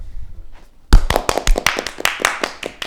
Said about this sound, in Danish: Kan vi lige få nogle klapsalver?